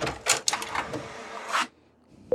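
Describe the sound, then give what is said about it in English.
A hospital monitor prints a paper strip recording a woman's labor contractions, with a rapid, buzzing mechanical whir in short bursts, stops, and after a pause a brief electronic beep sounds. No one speaks. “There was paper constantly being printed out that showed the contractions, their size and length, like we were measuring earthquakes.”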